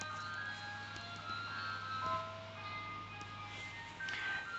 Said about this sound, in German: Das ist der Eiswagen, der hier gerade über den Zeltplatz rollt. Und zwar es ist 22.14 Uhr und hier fährt ein Eisverkäufer über den, über den Zeltplatz und verkauft Eis. Sowas erlebt man nur in Großbritannien.